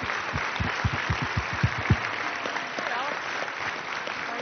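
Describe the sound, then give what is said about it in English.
An audience breaks into steady applause for the panelists on stage, a dense wash of clapping with a few louder, sharper claps standing out in the first couple of seconds before it settles into an even patter. “uh, if we could have one more big round of applause for all of our brave panelists here.”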